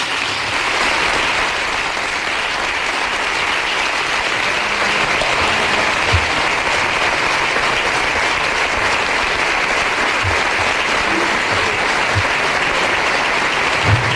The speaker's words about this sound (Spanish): Pues ese es el aplauso, la tremenda ovación que se ha llevado Joaquín Sánchez, el del puerto, el capitán del Real Betis Balompié, que de nuevo vuelve a aflojarse el nudo de la corbata después de esta despedida que acaba de hacer